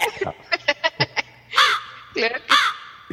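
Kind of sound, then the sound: bird, crows cawing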